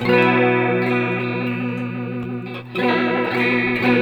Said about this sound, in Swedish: Då ska, eh, om du spelar då så ska jag köra Momentary Switchen här. vara någon form av Leslie-effekt så att säga.